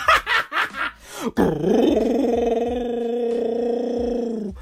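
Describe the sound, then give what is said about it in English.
A voice imitates a growling, hungry stomach: a few quick grunting bursts, then a long, rising and sustained rumbling groan, loud. “Meanwhile, your tummy sounds like a fucking monster from Monster Hunters.”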